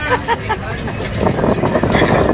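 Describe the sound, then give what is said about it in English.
Steady vehicle rumble fills the space while several people chatter and laugh loudly in overlapping voices, a dense mix of engine drone and indistinct conversation from riders inside a moving bus driving over little rivers and through a canyon. “so we're gonna do a recap of that, but I just wanted to record actually on this bus because it's, it's kind of a moment I never want to forget.”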